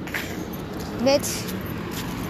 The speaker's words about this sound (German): Äh, sorry wegen dem Wind und den Autos. Wir sind an einer Straße.